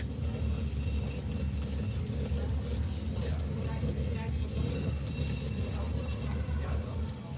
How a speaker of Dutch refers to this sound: als ik het geluid zo hoor, doet het me denken aan het geluid van een eh, verkeerstunnel onder de grond. Of hmm. treinen die langskomen of zo. Ja, het is een heel technologisch geluid.